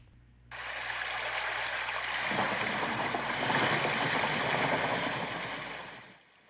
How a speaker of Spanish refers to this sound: ¡Woohoo! ¡Wow! La llovizna es fuerte. Es cierto, hay un par de relámpagos y truenos.